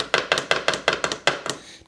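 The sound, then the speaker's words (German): A rhythmic series of about nine sharp knocks on a desk, beats made with a Chuck Chuck gadget, fairly steady with a quick double near the end, each a crisp woody tap with a short ring and no voices. “Ich bin nämlich so ein musikalischer Typ und ich kann hier so meine eigenen Beats hier machen auf meiner Tastatur quasi damit.”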